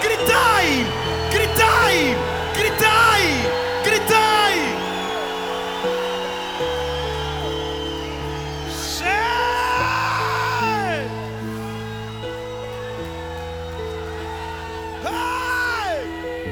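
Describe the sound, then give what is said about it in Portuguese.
A crowd of voices shouts and whoops in rising and falling cries at calls of "gritai" (shout), bursting out repeatedly over sustained keyboard music, loud, like an excited audience cheering. “E de repente Josué diz: gritai, gritai, gritai, gritai, gritai, gritai, gritai. gritai.”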